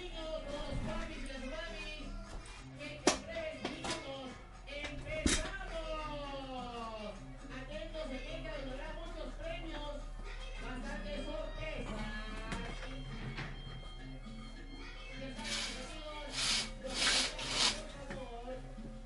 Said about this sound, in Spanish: Voy a cerrar la ventana. Voy a cerrar las cortinas para ver si mengua un poco más el ruido, ¿ya?